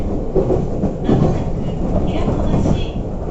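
A Nagoya Railroad (Meitetsu) Toyota Line train nearing Hiratobashi station rolls along with a steady, rumbling clatter of wheels over rail joints, a dense low roar that holds constant loudness throughout, with faint rhythmic clacks beneath.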